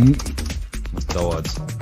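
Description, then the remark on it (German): Rapid, irregular clacking of keys on a computer keyboard, fairly loud, with brief bits of voice murmuring in between. “diese Tastatur ist eine solche Katastrophe”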